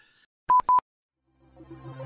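A cell phone goes off in the middle of a recording, chirping with two quick, sharp electronic beeps, loud in a quiet moment, followed by a low, murky hum of sound swelling up afterward.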